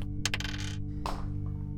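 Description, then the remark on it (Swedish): Two dice are rolled for a mythos check, rattling and clattering across a hard surface, a quick burst of sharp clicks followed by a final knock, over a steady low hum with no talking. “Jag vill att ni slår två stycken tärningar för en så kallad mythos-check.”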